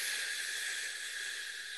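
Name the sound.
slow exhale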